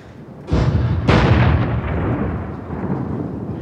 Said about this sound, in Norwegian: Koloniens kanoner skjøt salutt.